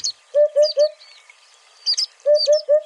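Migratory songbirds call outdoors: two bursts of quick, hollow three-note phrases, each mixed with bright higher chirps. A short quiet gap separates the bursts, and no one speaks.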